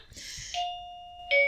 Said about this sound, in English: Oh, that's my doorbell. One second.